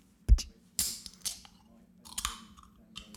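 A sharp metallic click and crack as the tab of an energy drink can is pulled in front of a microphone, followed by a brief fizzy hiss and a few smaller clicks, with no talking.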